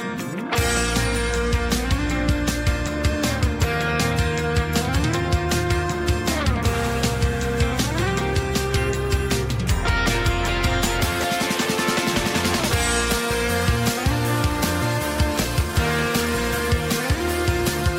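A song plays steadily and loudly for the whole stretch, with a driving beat, deep bass and gliding melodic lines layered over full instrumentation, no talking over it.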